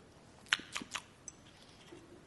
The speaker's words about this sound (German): Ich schmatze so. Ne?